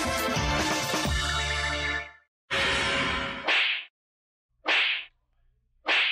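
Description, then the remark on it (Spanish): A loud, dense musical burst gives way to three sharp open-hand slaps, each crisp and whip-like, landing about a second apart, with no voices. “¿Ustedes se dejarían cachetear de a gratis?”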